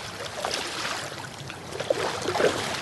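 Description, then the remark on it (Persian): Steady rushing of cold flowing qanat water, where the water of three qanats pours together, moderately loud, with a few brighter splashes breaking through near the end. No voices. “عجب آبیه”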